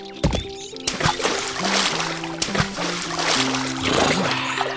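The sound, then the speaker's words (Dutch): Water sloshing and splashing in a small inflatable paddling pool, with irregular bursts of movement and droplets, accompanied by faint tonal background sounds and no clear speech. “Ik ga vast in het badje.”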